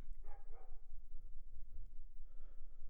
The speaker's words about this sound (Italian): sti cazzo dei cani che abbaiano